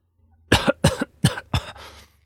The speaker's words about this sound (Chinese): 说完，就张开嘴巴，不停的咳嗽起来，只咳得面红耳赤，口水四溅。